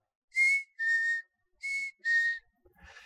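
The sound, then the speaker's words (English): A person whistles a birdlike call: four clear, sustained notes in two pairs, each a steady tone around the same pitch, fairly loud, followed by a faint, noisier trailing sound. “It was like we were brothers or sisters, connected in our whistle and in our song.”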